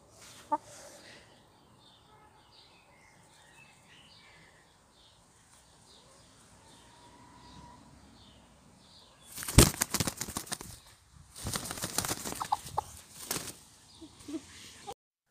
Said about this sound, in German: Jetzt hörst du mal, wie es klingt, wenn ein Huhn flattert. Man hört richtig, wie viel Kraft es dabei hat.